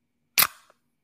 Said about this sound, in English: I'm just cracking open a cold one.